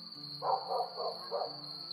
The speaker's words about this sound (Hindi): विजय डर गया उसने दो कदम पीछे किए कि तभी उसे चारों तरफ से कुत्तों के भौंकने की आवाजें सुनाई देने लगी